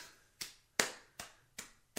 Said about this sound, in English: That's her clapping.